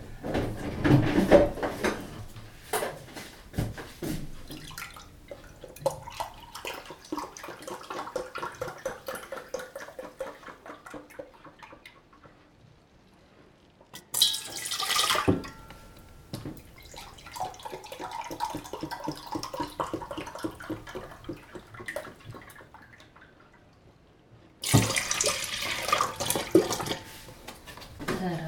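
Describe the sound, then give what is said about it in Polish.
Milk, two glasses, is poured steadily into a bowl for crêpe batter for croquettes, in two long streams, each lasting several seconds, bracketed by short clattering knocks of kitchenware. Moderately loud, with no talking. “Zacznę od produktów płynnych.”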